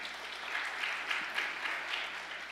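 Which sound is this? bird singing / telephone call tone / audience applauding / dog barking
audience applauding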